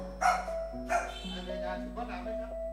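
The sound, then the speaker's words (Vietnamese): A dog barks sharply twice, then gives a couple of softer, shorter barks, over a steady low electrical hum. “Bọn tôi về nó không có sủa tiếng gì luôn Nhưng mà cứ người lạ đến là nó sủa”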